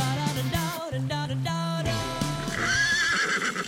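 A horse neighs loudly, a long wavering whinny that shifts pitch repeatedly and climbs into a shrill, trembling squeal toward the end, with no voices present.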